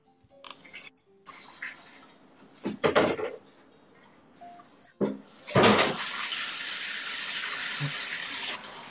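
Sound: running water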